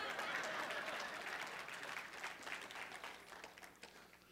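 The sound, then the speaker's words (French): An audience applauds with dense, crackling clapping that starts strong and gradually thins and softens over a few seconds, with no voices rising above it. “Si vous voulez, vous pouvez applaudir ou pas, mais décidez-vous.”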